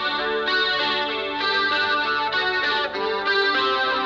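A rock song intro on an electric guitar thick with chorus and distortion effects, playing a steady, shimmering run of sustained chords, loud, with no voices.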